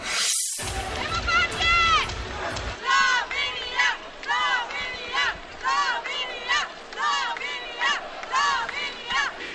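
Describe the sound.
A handball crowd at a Slovenia versus Croatia match at the world championship in France cheers loudly, opening with a sharp roar and then chanting in steady, rising-and-falling waves of many voices, pulsing about once a second.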